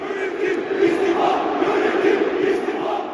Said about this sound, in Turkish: Süper Lig ise artık keyif vermiyor. Hemen her maçta tribünler istifa sesleriyle yankılanıyor.